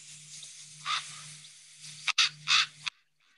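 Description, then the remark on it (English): A raven gives a few harsh, rasping croaks at uneven intervals over a steady low hum and faint hiss, with no one talking. “By the way, uh, I just want to point out this is the sound that an actual raven makes.”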